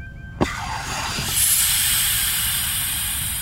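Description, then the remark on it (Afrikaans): A sleep capsule is unlocked: a short mechanical clunk, then a loud pneumatic hiss of releasing air that swells and keeps steadily venting to the end, with no voices. “Ek ontgrendel die kapsule. Ek ontsluit die kapsule.”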